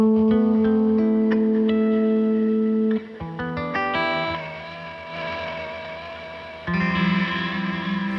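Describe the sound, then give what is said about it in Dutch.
An ambient guitar played through a delay effects pedal: a sustained, effects-drenched drone with shimmering, spacey washes and echoing tones that swell and fade, thick with reverb and modulation, with no talking. “ik hou heel erg van dat ambient guitar ding. Dus dat je echt met je gitaar allerlei space geluiden kan maken.”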